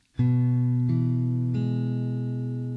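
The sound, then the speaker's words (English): Strings five, four and three of a guitar, fretted and pressed hard, are plucked one after another at an even pace, each note ringing on and overlapping the last so they blend into a sustained, bright chord. Clear, with no talking. “So the first thing you do is play string five only, then string four, and then string three.”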